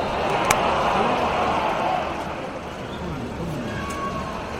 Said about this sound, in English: You might be able to hear the rain on the roof. We're back for another weather report. I'm pleased to report that it's still coming down.